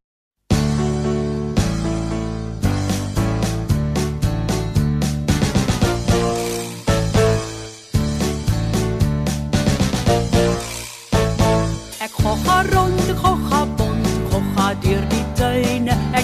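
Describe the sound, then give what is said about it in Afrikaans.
Loud, full-bodied music plays with a steady rhythmic pulse and bright melodic notes, briefly dropping out a couple of times before carrying on; no talking is heard. “Kom ons luister na musiek, dan vertel ek vir julle die storie.”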